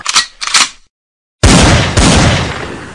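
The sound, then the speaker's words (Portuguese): Two quick sharp clicks, a brief silence, then a loud gunshot blast followed by a second blast, with a long rumbling tail that slowly fades. No one speaks. “Agora dei tiro na minha cabeça, por favor.”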